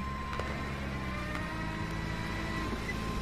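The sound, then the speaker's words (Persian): A police car's engine rumbles steadily as the vehicle pulls up behind and comes to a stop, a low continuous drone with no voices. “ماشین پلیس در عقب میگیره”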